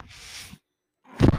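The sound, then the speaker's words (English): A mechanical ventilator breathes: a soft airy hiss of air flow, a short pause of silence, then a louder, deeper whoosh as the next breath begins. No one speaks. “That noise you're hearing is my ventilator.”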